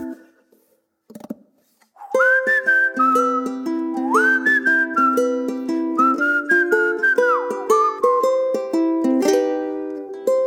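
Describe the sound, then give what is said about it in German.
A song carried by a clear whistled melody over steady chords and plucked accompaniment, starting after a brief quiet moment and playing loudly and evenly to the end. “Musik und nicht irgendeine Musik, sondern der Song, der eigentlich das alles widerspiegelt irgendwie, äh, was in diesem Podcast abgeht.”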